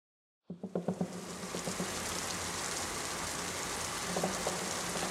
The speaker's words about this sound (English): I walked silent but fast, the crunch of the leaves were drowned out by the hiss of the rain.